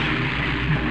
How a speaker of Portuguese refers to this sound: Ah, meu Deus do céu, o que foi isso? Amor, algo acaba de acontecer aqui. Não sei, parece um avião, alguma coisa que caiu, explodiu.